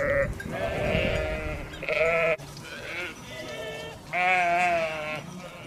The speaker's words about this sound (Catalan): El petit ramat de fedes pasturava l'entorn i sols se sentien els bells dels animals i el gring-gring de les esquelles.